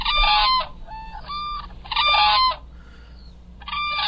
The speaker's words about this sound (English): The sound of whooping cranes there.